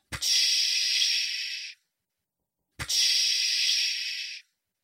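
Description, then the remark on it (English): Two loud bursts of steam venting from a big spinning mechanical engine, each a sharp-onset hiss lasting about a second and a half, separated by a short silence. No voices or other sounds. “He looked over the side down at the big spinning mechanical monster of a machine. Steam vented every few seconds.”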